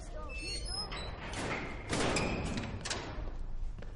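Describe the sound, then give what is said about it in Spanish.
Several soldiers shut a heavy door, a single loud, dull thud midway through, over a steady rumbling background with faint murmuring voices and some scraping. “Varios soldados cierran la puerta.”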